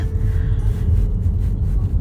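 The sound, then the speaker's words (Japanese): Steady, dense low-frequency road rumble inside a car driving along a road in Yamanashi, a continuous droning roar with faint higher hiss and a thin tonal hum riding above it, no talking. “タイヤが一生懸命地面を蹴ってあ蹴ってないな滑らかに進んで私は今山梨の道を走っていますいえ正確に言えば山梨に道を走っている車に乗せてもらっております”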